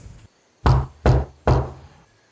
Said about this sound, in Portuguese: Era um sábado à noite, ele já estava na cama dormindo, quando ele escuta um barulho vindo do guarda-roupa de frente para a cama onde ele estava. Eram três toques.